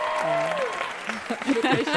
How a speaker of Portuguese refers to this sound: Uma salva de palmas para essas falas